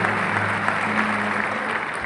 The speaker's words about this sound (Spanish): un aplauso para mí Una grande, una grande.